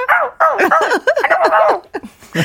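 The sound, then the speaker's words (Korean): A person mimics a puppy, letting out a quick run of high, yappy barks and whimpers, fairly loud, with a brief pause before a final yelp. “가끔가다 강아지도 있다.”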